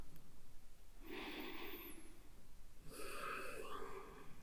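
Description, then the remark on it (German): Two long, deep breaths, a slow airy inhale followed after a short pause by a fuller, breathy exhale, with no talking. “Wieder muss ich atmen, denn es sind für wahr tiefe Themen und auch ich bin geneigt, in den Kopf zu kommen und zu schnell zu sprechen.”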